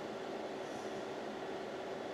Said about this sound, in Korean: 주전자는 끄고 시끄러우니까.